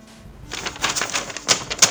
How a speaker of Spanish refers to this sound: Tengo acá la, planillita. Así que seguramente durante este capítulo va a haber efectos de sonido a hojas